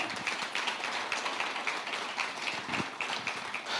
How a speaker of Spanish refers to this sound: Amén, denle un fuerte aplauso, amén.